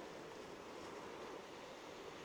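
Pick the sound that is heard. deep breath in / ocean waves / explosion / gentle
ocean waves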